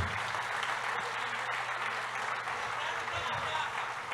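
Steady audience applause fills the whole stretch, a dense wash of clapping at an even, fairly loud level with no break, a low hum running underneath.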